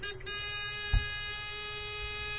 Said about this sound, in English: Now unfortunately I paused slightly too much liquid in. That's the continuous beep which indicates that it's actually full.